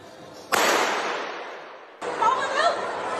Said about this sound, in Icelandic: Skotárás í Kaupanahöfn voru fyrstu fréttinnar sem okkur bárust um kvöldmatarleitið í gerðkvöldi.